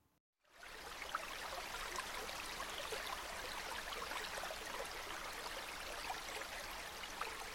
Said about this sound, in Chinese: 你们觉得这是什么声音啊？是水龙头的水吗？还是是游泳池的水呢？又还是是海边的水，或者是河流的水呢？答案就是河流的水哦。The sound of a river。